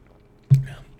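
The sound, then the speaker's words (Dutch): A single quick, soft sip from a drink, with a brief wet mouth sound that fades out after a moment; no one is talking. “Ik neem nog even een slokje.”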